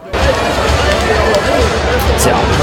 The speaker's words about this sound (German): Man hört es, es gab sogar Buhrufe in der Arena Trier nach dieser harten Klatsche für das Team.